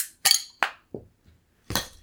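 A hammer pops the cap off a bottle of Shiner IPA beer, brewed in Shiner, Texas: several sharp, bright metal-on-glass clinks at uneven intervals, a couple softer and duller, ending with one loud ringing strike. No voices.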